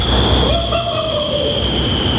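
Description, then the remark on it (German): A loud, steady roar of rushing air from an indoor skydiving (bodyflying) wind tunnel in Winterthur fills the space without pause, with a constant high whine and a lower droning tone riding on top, like a powerful fan running. “Ich bin jetzt hier im Badebereich vom Windkanal.”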